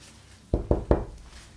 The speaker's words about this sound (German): Oder ich klopfe dreimal auf Holz.